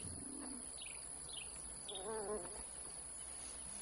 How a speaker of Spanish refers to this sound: Unas palomas allí anidadas levantan el vuelo.